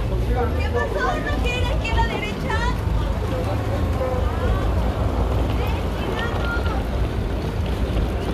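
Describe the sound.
Busy city street ambience at Times Square, heard while walking under construction scaffolding: a steady, loud low roar of traffic and wind-like noise, with overlapping crowd voices, some speaking Spanish, chattering throughout.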